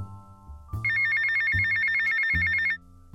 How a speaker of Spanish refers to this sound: Antes de contestarle, su teléfono empezó a sonar y alzó un dedo hacia nosotros. Buscó en su bolsillo y contestó.